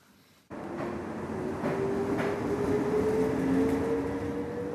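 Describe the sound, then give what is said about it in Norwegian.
An old, worn NSB train rumbles steadily at Bergen railway station in Norway after a brief quiet start, with a sustained mechanical drone and faint high squealing tones, loud, no voices. “Mange togpendlere på Bergen stasjon er lei av slitte tog.”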